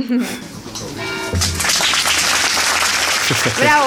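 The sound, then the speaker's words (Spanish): An audience breaks into dense, steady applause after a song is sung, many hands clapping together at a loud, even level, with brief bits of voice at the start and end. “Pero bueno, han aplaudido.”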